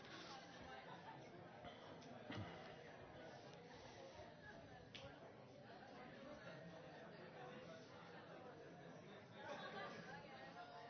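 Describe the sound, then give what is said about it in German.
A church audience at a morning service chatting and greeting one another at once, a steady, dense murmur of overlapping voices with no single speaker standing out. “Das ist so richtig schön, wenn man euch so miteinander reden hört.”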